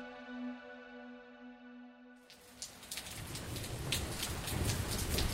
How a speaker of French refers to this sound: Donc je suis là dans les rues de, Bruges. C'est très joli. Il fait très froid. Il y a beaucoup de pluie. Je galère un petit peu à tenir mon parapluie, mon micro.